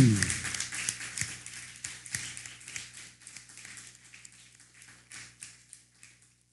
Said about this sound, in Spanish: Ese, ese, aplauso como que se me escuchó muy, muy esforzado. Hágalo bien. Fuerte aplauso que se escuche.